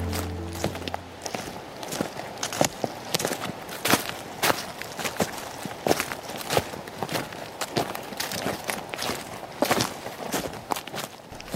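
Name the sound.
footsteps walking outdoors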